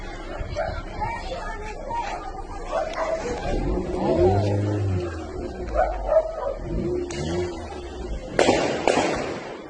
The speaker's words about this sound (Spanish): Pues la gente se empieza a retirar, hay una balacera aquí en Chalpatlagua, en donde se llevaría la reunión. ¿Ustedes escuchan? Miren, amor, la balacera. Ahí balacera. la balacera.